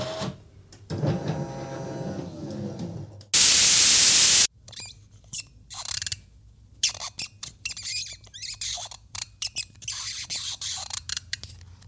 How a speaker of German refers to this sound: Das ist das Geräusch des Gummiverschlusses meiner Waterdrop Metallflasche. Und Das mag ich irgendwie sehr.